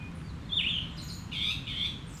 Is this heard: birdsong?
yes